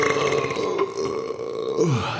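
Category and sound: human body sound, burp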